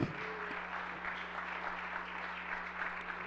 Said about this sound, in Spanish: Denle otro aplauso fuerte al Señor.